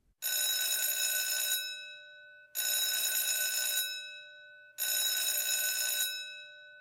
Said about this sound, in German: Es hat dreimal geklingelt. Alle sitzen gespannt auf ihren Plätzen.